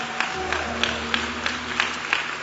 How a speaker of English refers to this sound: Hallelujah. Amen. Y'all give the Lord another hand clap. Won't you do that?